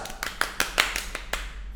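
A quick run of hand claps, about eight sharp slaps in an uneven rhythm over under two seconds, moderately loud against a faint low background hum.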